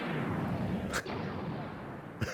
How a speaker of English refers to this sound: laser explosions, laser explosions.